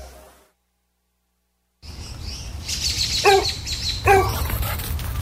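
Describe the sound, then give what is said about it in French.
A dog that has got out of the yard again barks twice, about a second apart, over a noisy outdoor background with birds chirping. A short stretch of silence comes before the scene begins. “Le chien est encore sorti de la cour!”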